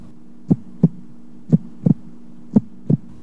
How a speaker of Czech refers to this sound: a představte si, že některé děti uh, si pamatují dokonce těsně před porodem, jak znělo srdíčko maminky. Protože normálně, když to poslouchá lékař, tak slyší tudum, tudum, tudum, ale když to prý slyší miminko, tak slyší š, š, š, š.